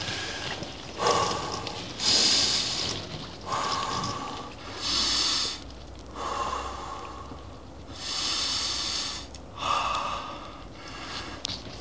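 Heavy, forceful breathing from a person sitting in ice-cold water with large chunks of ice, the air a couple of degrees below zero: about eight loud, rasping inhales and exhales in a steady, slightly hurried rhythm. No talking.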